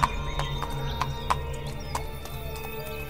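Horse hooves clip-clop along at a brisk, steady pace, each sharp knock ringing out clearly over a low, continuous rumble. There are no voices. The charro negro hurries his horse along a moonlit road.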